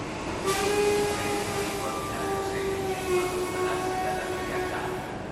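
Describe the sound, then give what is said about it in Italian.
A stationary train idles at platform 1 of a railway station, its steady electrical hum and droning tones filling the space, with a brief sharp clank near the start and a constant background wash of station noise. “Raggiungo il binario 1. Qui, accanto al treno in sosta”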